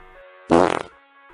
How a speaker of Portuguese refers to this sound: E como se não bastasse, eu não só peido, mas eu aviso.